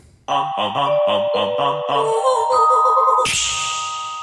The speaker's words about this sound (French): À Canal+, on surnomme cette virgule finale le chicha, c'est en réalité un claquement de doigts à la réverbération fortement compressée.